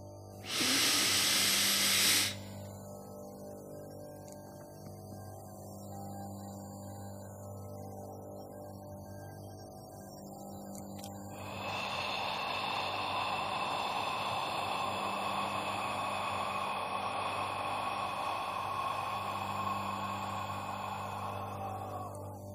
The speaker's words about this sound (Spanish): Repito, una inhalación por la nariz rápida y profunda, una retención de al menos 10 segundos y una exhalación lenta y profunda por la boca. Sería más o menos así.